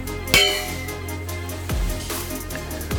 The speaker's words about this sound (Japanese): はい本日記念すべきゲームオブザイヤーにお立ち会いの皆様に歓迎の意味を込めてシャンパンをご用意いたしましたどうぞえー、私も一緒に飲ませていただきます乾杯